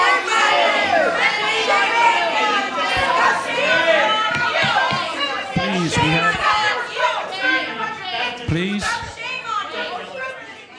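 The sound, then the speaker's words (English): A dense crowd of overlapping voices shouts and clamors continuously and loudly, with no single speaker standing out, as an unruly public meeting erupts into disorder. “Um, here's some of the disorder that you hear last night at this particular meeting.”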